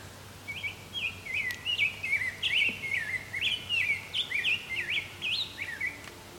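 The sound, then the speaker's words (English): A grosbeak on a trail sings a continuous, rich warbling song of rising and falling sweet phrases, clear, over a faint low background hum, with no talking. “I think this grosbeak just flew off.”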